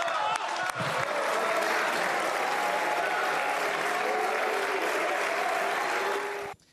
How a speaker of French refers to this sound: Gabriel Attal qualifie le RN de troupe de Poutine, bronca dans euh, les bancs euh, du Rassemblement national, applaudissements dans les rangs de la majorité.